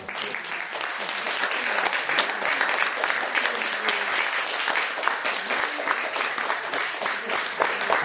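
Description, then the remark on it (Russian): Sustained applause from an audience at the end of a lecture in the philosophy course «Философия для жизни», a dense steady patter of many hands clapping at even loudness for the full eight seconds, with no voices standing out. “Это вот все аплодисменты адресуем э, ему и тем философам, еще раз повторю, на которых он опирался, видите, тут и стойки звучали, и Сократ, и буддизм.”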